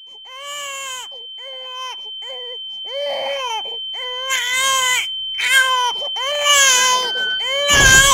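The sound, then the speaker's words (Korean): A baby cries in a series of shrill, wavering wails, short bursts at first and then longer and louder, with a thin steady high tone humming underneath. “아기소리”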